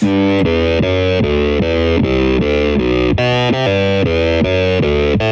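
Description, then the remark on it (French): Heavily distorted, synth-like guitar sound from a live video, played through a Marshall amplifier: a fast repeating pattern of stepped notes, loud and continuous with a thick, buzzy amp tone and no voices. “il passe par un ampli Marshall. Ouais, donc ça, ça peut servir à faire des sons de l'espace, effectivement.”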